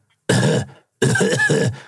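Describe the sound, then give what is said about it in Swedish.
A voice imitates people coughing from pyrotechnic smoke in crowded stadium stands: one harsh cough, a short pause, then a longer double cough, rough and breathy, with no other sounds around it. “och så började folk hosta som fan, så vissa fick ju till och med lämna läktaren för att det var så mycket, mycket tryck.”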